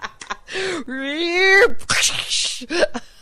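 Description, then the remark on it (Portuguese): A voice imitates a car crash: a rising, strained vocal tone followed by a loud, hissing, noisy burst, with short breathy vocal bits at either end. “Isso era o som dos acidentes que estamos a provocar.”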